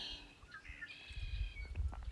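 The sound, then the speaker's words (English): Birds chirp and warble in the background outdoors while someone sits outside, their thin high calls layered over a low, rumbling wind or handling noise; the calls are fairly quiet, with no one speaking. “And you'll probably notice that there's you know, there's birds chirping and in the background, and I'm just sitting outside and I'm just connecting with Mother Earth.”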